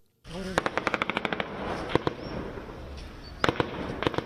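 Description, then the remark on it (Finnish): Rapid bursts of gunfire from Taliban fighters attacking the Afghan intelligence service building in Kabul, Afghanistan, crack out over a steady background roar, a quick string of shots followed by scattered single reports and another short cluster, fairly loud. “Tältä kuulosti eilen Kabulissa. Talibanin taistelijoiden kohteena oli Afganistanin tiedostelupalvelun rakennus.”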